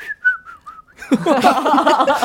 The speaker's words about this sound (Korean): 너무너무 잘 들었어요. 특히 휘파람. 아, 진짜 진짜 여자 진짜 저기 하려면 진짜 휘파람 한번 불어야 되는 건데 으 한번 불어주세요 진짜 이거.